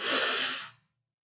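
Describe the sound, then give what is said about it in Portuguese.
A single deep, airy inhalation during a breathing exercise, fairly loud, drawn in steadily for under a second and then stopping abruptly into silence as the breath is held. “Respira fundo, segura até quatro.”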